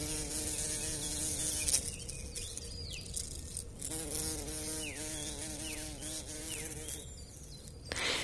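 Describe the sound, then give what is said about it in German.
A small, fluffy worker bumblebee buzzes steadily, its low droning hum wavering in pitch as it moves, with faint birdsong chirping in the background. “muss es bei Klaus Henschel summen und brummen”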